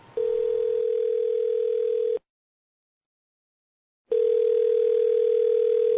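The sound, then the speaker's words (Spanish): A steady telephone tone sounds for about two seconds, cuts to silence for two seconds, then returns just as loud and clear, like a ringback while a call is placed again after the connection was lost. No one speaks. “Hemos perdido la comunicación, vamos a intentarlo de nuevo. Vamos a llamarlo.”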